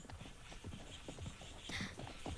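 Irregular hoofbeats of a camel and a horse ridden by two robbers thud and clop in a loose, overlapping rhythm over a hissy background as they step along at a desert watering place at night, growing slightly louder toward the end.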